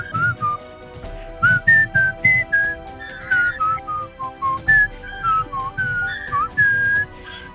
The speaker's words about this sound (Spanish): se llama La Marcha del Coronel Boogie, ¿ya? que es la que silbaba a los prisioneros al llegar